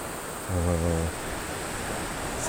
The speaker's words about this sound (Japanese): 先端にね壁がぶつかっちゃう気がしますねこれだけ波が跳ね返るとえー、あこういう風になってるんだどうやら一応見えるんですけど激しく波が打ちつけてる音が聞こえて海面見えますね